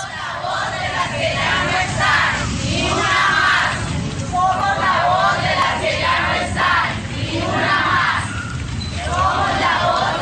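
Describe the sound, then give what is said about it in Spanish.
A large crowd of marchers in the main streets chants a slogan in unison, demanding respect for women and protesting the double killing of two Universidad Industrial de Santander students. The shouted phrase repeats in loud rhythmic waves about every two seconds over a constant rumble of voices and noise. “marcharon por las calles principales para exigir respeto por la mujer y protestar por el doble crimen”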